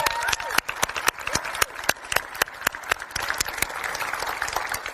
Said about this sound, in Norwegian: Og nå har Tweens-gjengen kommet ned her, for de skal høre på talen i dag. Det er vi veldig glade for. Kan vi ikke gi dem en applaus?